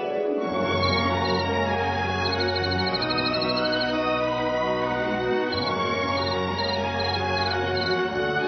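cricket chirping

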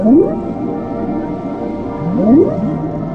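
whale vocalization

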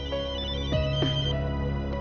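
mobile phone ringing

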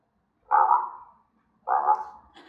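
dog barking

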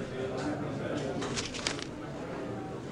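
birds calling

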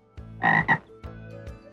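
toad croaking

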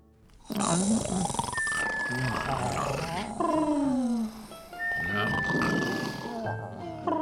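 many people snoring

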